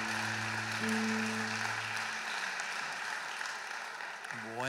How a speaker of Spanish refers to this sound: Démosle un fuerte aplauso al Señor Jesús.